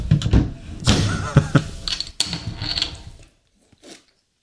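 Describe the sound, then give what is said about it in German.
Clattering and scraping lead up to a sharp crack as a bottle cap is knocked off against a table edge, followed by a short hissing fizz, then a faint final knock. “Jetzt schön den, schönen Kronkorb an einem guten Eichentisch abgeschlagen.”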